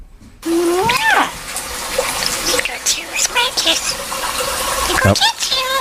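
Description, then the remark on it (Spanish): A starling mimics human speech in English, its voice-like babble mixed with rapid whistles, clicks and rising squeaky notes, a continuous stream of chatter lasting several seconds. “Vamos a escuchar a un estornino hablando.”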